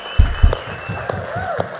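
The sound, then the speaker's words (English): An audience at a worship service claps their hands for Jesus in steady applause, a dense patter of many hands with a few sharper claps standing out, plus low thumps and a faint rising whistle-like tone. “Can we just give Jesus one more giant hand clap?”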